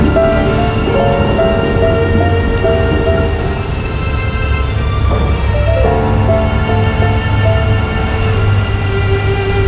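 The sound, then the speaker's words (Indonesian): Heavy rain suddenly pours down steadily and loudly at sea as the weather turns dark, with a deep rumble of thunder underneath, while sustained musical tones play through the downpour. No one speaks. “Hujan tiba-tiba turun dengan teramat lebatnya.”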